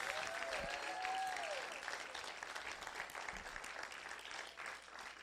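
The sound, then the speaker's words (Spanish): A crowd claps steadily and loudly for several seconds in applause for Jesus, a dense wash of applause with a few voices and a whistle rising above it at the start, then tapering slightly. “Vamos a dar un aplauso más fuerte a Jesús.”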